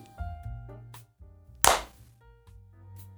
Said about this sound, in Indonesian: Suara tepukan tangan antara Bima dan Tony